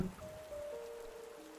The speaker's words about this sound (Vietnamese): Bỏ lại tiếng gọi của mẹ Hương vẫn chạy đi trong mưa